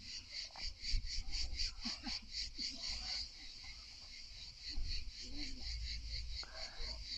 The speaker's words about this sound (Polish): druga przerwa y, na cykadę.